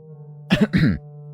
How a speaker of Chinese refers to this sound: 过了几秒钟之后，蒋泽旭十分不自然地移开了眼神，稍微咳嗽了几声，才缓缓地说：